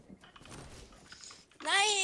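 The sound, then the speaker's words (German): After a stretch of low, muffled background noise, a single loud, high-pitched bark from the speaker's dog rings out near the end, drawn out with a rising tone. “Mein Hund bellt die ganze Zeit, also mein einer Hund.”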